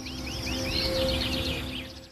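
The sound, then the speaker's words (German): Birdsong fills the scene, a steady stream of quick, high twittering chirps and sweeping whistles over a low background rumble, with no pauses and no voices. “Gut eine Woche noch kann jeder helfen, den Klang der Vogelwelt zu dokumentieren.”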